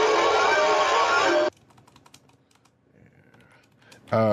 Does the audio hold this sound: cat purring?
no